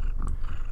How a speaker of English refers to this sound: that was my cat purring. He might be doing that through the whole thing, and I hope it